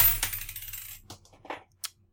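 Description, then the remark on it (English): A stack of coins topples and spills with a metallic clatter, a dense jingling burst followed by a few scattered clinks and a final bright ring, moderately loud. “That was just random stack of coins falling over.”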